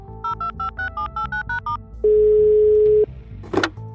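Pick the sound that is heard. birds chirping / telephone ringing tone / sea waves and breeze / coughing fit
telephone ringing tone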